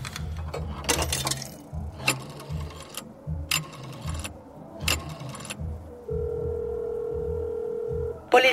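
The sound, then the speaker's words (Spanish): A telephone ringback tone sounds through the earpiece as a caller in Chiconautla, State of Mexico, waits, a steady hum lasting about two seconds after a stretch of muffled voices, sharp clicks and handling noise, with no one picking up. “Chingada madre, pinches teléfonos de mierda.”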